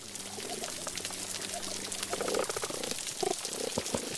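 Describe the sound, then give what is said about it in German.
A healthy coral reef recorded underwater: dense, constant crackling and popping fills the scene, with occasional low tonal grunts and hums rising beneath the steady fizz. No voices. “Der britische Meeresbiologe Tim Gordon von der University of Exeter weiß genau, wie ein gesundes Korallenriff klingt, in dem noch das Leben pulsiert. Als erstes bemerkt man dieses ständige Knistern und Knacken, wie der Klang von Speck beim Braten”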